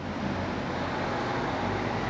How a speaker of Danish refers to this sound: Jeg kører lige i Nørregade nu, som er proppet med biler.